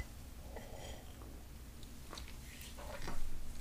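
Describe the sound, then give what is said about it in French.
A quiet sip of coffee: soft slurping and mouth noises with a small swallow toward the end, heard alone with no talking. “Fait que je m'en vais prendre une gorgée de café right now.”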